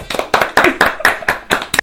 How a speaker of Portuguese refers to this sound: Então a gente tem que agradecer aos detratores do Espiritismo. Peço até uma salva de palmas para eles.